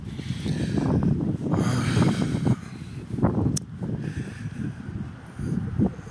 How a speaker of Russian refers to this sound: Ну, во-первых, э, сегодня у нас ветрено тут в Ленинграде